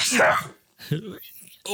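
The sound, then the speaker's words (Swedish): During a sneezing fit, a single loud, explosive sneeze bursts out at the start, followed by some short murmured voice sounds and breathy noises. “nu känner jag att jag fått nysattacker.”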